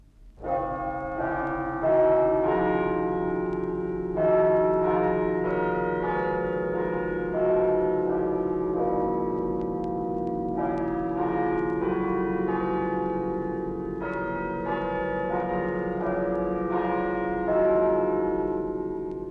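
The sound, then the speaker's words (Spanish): A mechanical carillon, a mechanical system for ringing bells, plays a steady, continuous melody of church bells, overlapping bell tones ringing out with a rich lingering resonance and no voices. “Esto que estamos oyendo es un carrillón, un sistema mecánico para tocar campanas.”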